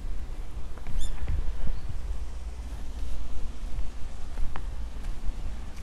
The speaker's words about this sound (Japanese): 小鳥のさえずりや水の流れる音が皆さんには届いているんでしょうか